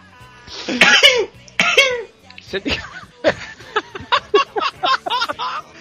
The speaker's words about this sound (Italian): Ma che cazzo era? Erano i miei starnuti ninja questi.